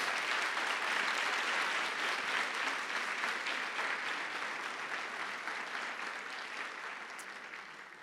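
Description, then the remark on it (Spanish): An audience at the Iglesia de Vida Nueva para el Mundo in Cuautitlán Izcalli applauds to welcome people, a steady, dense wash of clapping that stays loud throughout and eases off slightly toward the end, with no voices standing out. “Muy buenas tardes, bienvenidos a la Iglesia de Vida Nueva para el Mundo, Cuautitlán Iscali, A nombre de la Iglesia les damos un fuerte aplauso y les recibimos en el nombre de Jesús.”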